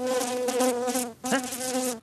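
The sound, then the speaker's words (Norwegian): A steady, fly-like buzz, imitated by a voice, held loud in two long stretches split by a brief pause, imitating the fan behind a kitchen refrigerator. “Kan jeg gjerne spørre meg og si Å nei, det er bare vifta bak kjøleskapet.”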